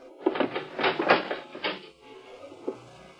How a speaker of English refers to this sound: Earthman, you will open that door.